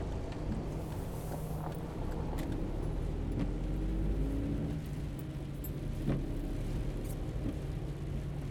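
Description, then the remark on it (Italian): A car engine is started and put into first gear, then rumbles steadily at a low pitch, its hum rising slightly as the vehicle pulls away and keeps driving, with a constant windy roar underneath and no voices. “Metto in moto in crano la prima e partiamo.”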